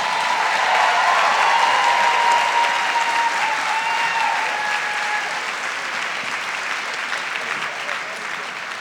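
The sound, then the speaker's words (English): A crowd claps steadily in a dense, sustained wave of applause, loud at first and easing slightly toward the end, with faint cheering tones mixed in near the start. “So I think that deserves a whole other round of applause.”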